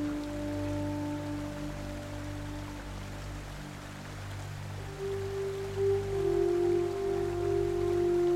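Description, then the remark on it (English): Soft, steady rain patters in a continuous wash of noise, with low sustained tones humming underneath throughout. The sound stays even and fairly quiet, with no voices. “A gentle rain begins.”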